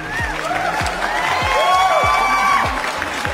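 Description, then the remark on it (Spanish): A crowd applauds and cheers steadily for a few seconds, with scattered whoops and whistles rising over the clapping; the sound is loud and full throughout, with no one speaking. “De un aplauso que tenemos nombre.”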